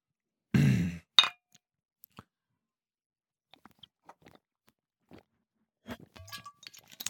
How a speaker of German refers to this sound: Dann stoßen wir jetzt noch ein letztes Mal an.